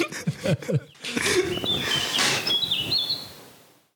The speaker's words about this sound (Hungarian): A madár hang jó lesz a végére.